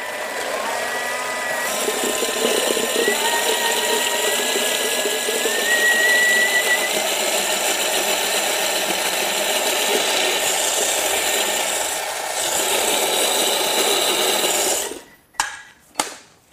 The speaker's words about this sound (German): Ähm, in das restliche Humus im Mixer habe ich jetzt zunächst mal zwei rote Beete reingegeben und mixe Mach's mal. Krach. Mach wieder Krach.